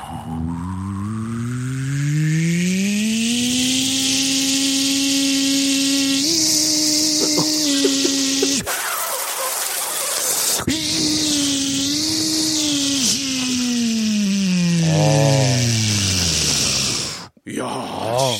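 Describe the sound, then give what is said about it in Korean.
A voice imitates a powerful modern vacuum cleaner with strong suction: a long, loud droning hum that revs up in pitch, breaks into a hissing rush of suction, then whirs on and winds down. “요즘 나오는 청소기잖아요, 이거. 야, 좋다. 흡입력 센 거.”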